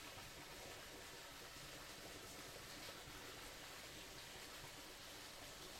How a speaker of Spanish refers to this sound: Antes de salir de la quebrada, siente por última vez la magia de este lugar, la fuerza del agua